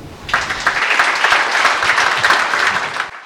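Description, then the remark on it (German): Loud, dense applause from an audience in the foyer of the Schauspielhaus in Bonn-Bad Godesberg, for theologian and author Melanie Wolfers, a steady wash of many hands clapping for about three seconds before it stops abruptly, with no voices standing out. “Der Applaus war groß im Foyer des Schauspielhauses in Bonn-Bad Godesberg.”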